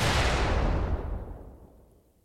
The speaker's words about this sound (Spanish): La potencia de la explosión fue tal que el automóvil voló por los aires, chocó en la cornisa superior de la residencia de los jesuitas y fue a caer dentro de un patio, quedando completamente destrozado. Un comando de ETA fue el responsable.